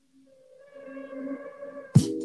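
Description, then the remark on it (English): A rap song's intro: eerie, sustained synth tones swell slowly for about two seconds, then a sudden heavy drum hit with deep bass drops in as the beat starts. “So … by …. Hope y'all enjoy it like I did”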